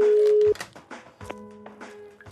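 An outgoing phone call's ringing tone: a loud, steady electronic beep that cuts off after half a second, then a quieter second tone. Faint voices murmur underneath.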